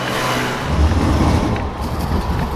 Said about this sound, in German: Die Ampel an der Kreuzung zeigt rot. Ein unablässiger Strom von Autos fährt vorbei, eine Straßenbahn rattert über die Schiene.